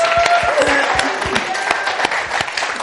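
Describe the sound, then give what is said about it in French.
A church audience applauds Jesus steadily, dense overlapping claps forming a continuous wash of sound with a few sharper individual claps standing out, plus faint voices and brief tonal calls mixed in. “On, on applaudit Jésus.”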